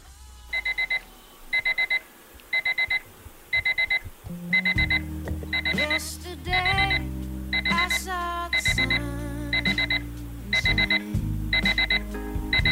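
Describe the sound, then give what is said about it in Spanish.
An electronic alarm clock beeps insistently in quick clustered bursts, repeating about once a second, loud, and keeps ringing; partway through, a low droning music bed starts underneath the beeping. “Está ahí medio frito, sigue sonando el, el despertador.”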